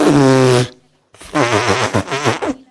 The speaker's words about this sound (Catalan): Què? Que la vaca es va tirar un pet i el pobre galifardeu va sortir desesperat